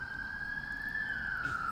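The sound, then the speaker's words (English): An ambulance siren wails steadily as it goes by, its pitch sliding slightly lower toward the end, heard alone over a low background rumble of traffic. “Well, there goes a uh, ambulance. Hope everybody's okay.”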